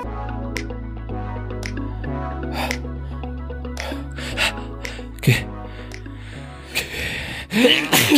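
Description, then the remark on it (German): A single sharp sneeze bursts out near the end, preceded by a quick gasping inhale, over steady background music with low sustained bass notes. “Gesundheit.”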